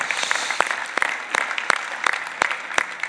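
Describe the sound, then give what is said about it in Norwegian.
An audience applauds the teachers among them, a steady wash of many hands clapping at moderate loudness, with a few sharper individual claps standing out at irregular moments. No voices are heard. “Det syns jeg vi skal klappe for, for det er så altså rikdom som eh, menighet.”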